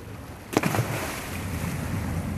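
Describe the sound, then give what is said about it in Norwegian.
A rescue boat's engine and wind rumble steadily over open water, broken near the start by a brief, sharp splash-like burst as a woman jumps overboard into the sea for a man-overboard pickup exercise. “Når du har hoppa, så kjører vi en runde, så kommer vi tilbake.”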